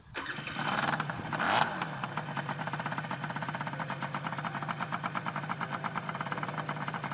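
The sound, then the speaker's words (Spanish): A two-stroke twin-cylinder motorcycle engine with one exhaust per cylinder catches with a short rev, then settles into a rapid, even idle of crackling firing pulses, steady, with no voices. “Y luego cuando ves los dos escapes por el lateral, porque como, como es bicilíndrica y de dos tiempos, pues necesita obligatoriamente un, un escape por cilindro y es una pasada, queda súper chulo.”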